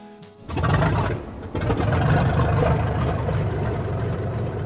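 A small plane engine sputters to life after a brief hush, catching with a rough stutter and then settling into a loud, steady, rumbling drone.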